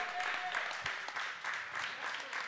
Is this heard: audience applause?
yes